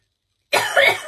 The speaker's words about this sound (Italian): scusatemi, niente, quando mi viene, quando mi viene da tossire, bisogna tossire